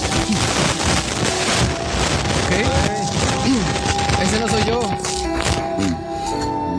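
A snack bag crinkles and rustles steadily as fried plantain chips are pulled out, a dense crackly sound running the whole time, with people talking over it.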